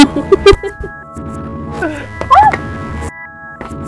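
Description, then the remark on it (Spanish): A microphone dropped by a young woman knocks against something, making several sharp, loud thumps and rattles, followed by muffled handling noise and a faint ringing hum. “Disculpen el ruido, pero a cierta señorita se le cayó el Es que te querían pegar con él.”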